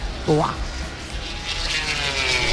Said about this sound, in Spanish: Están pasando las motos de MotoGP por la curva Mm, eh, anterior a donde estamos nosotros. Ahora en tan solo un segundito van a venir hacia este punto y el volumen subirá de manera considerable porque estas motos rugen que es una barbaridad.